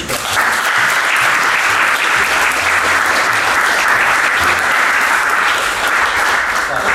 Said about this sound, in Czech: Takže potlesk